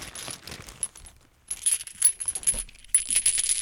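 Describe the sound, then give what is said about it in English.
Small empty metal nitrous oxide whippet cartridges clink and rattle against one another in bright, jangly bursts, pausing briefly about halfway through before the tinny clattering resumes, with no voices. “A bunch of old empty whippets.”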